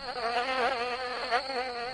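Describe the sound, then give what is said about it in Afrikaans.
A fly buzzes steadily for the whole moment, its droning whine wavering slightly in pitch as it hovers, with no voices present; in an Afrikaans children's story, Veronica the fly goes to settle again on the twig. “Driekie Dassie kyk om na Mani Meet en Veronica vlieg gaan sit weer op die takkie.”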